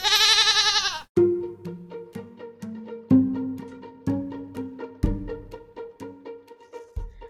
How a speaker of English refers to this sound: Oh, who let the goat in?